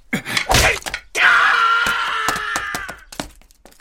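A wooden club is swung with a whoosh at a man's head and he blocks it with his arm, with several sharp thwacks. Between the hits comes a drawn-out, pained groaning moan before it fades.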